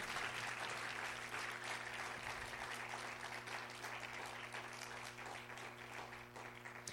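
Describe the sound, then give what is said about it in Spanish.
A church audience breaks into loud, sustained applause for the Lord, dense overlapping clapping that holds steady for several seconds over a low steady hum, with no one speaking. “¿Pero puede dar un aplauso fuerte al Señor?”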